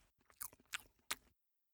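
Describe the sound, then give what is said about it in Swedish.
Wet chewing and lip smacking on a banana, with a few sharp smacks spread over about a second before it stops into silence. “Ska jag smaska lite mer bananen?”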